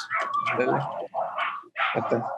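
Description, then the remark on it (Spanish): Dogs barking and yelping outside a house in quick, overlapping bursts, loud, with brief pauses between three clusters of barks. “Hoy saltaban los perros.”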